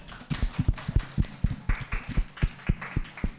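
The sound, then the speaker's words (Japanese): A small group claps steadily for a few seconds for high school students about to show a backflip, sharp overlapping hand claps at a quick, slightly uneven pace, moderately loud with no voices. “一番綺麗なバク転やってもらうからじゃあお願いします拍手”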